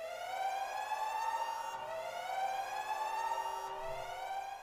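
A loud alarm siren wails alone, its pitch sweeping upward in repeating cycles roughly every two seconds, with a harsh, buzzy tone and no voices over it.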